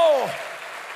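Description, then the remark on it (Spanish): An audience applauds for the Lord during a sermon in a steady, dense wash of clapping that holds for the full second, with a voice's falling tone briefly trailing off at the very start. “Dele fuerte ese aplauso al Señor.”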